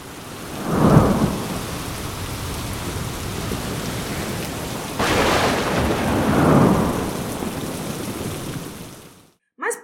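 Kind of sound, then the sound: nature, thunderstorm with rain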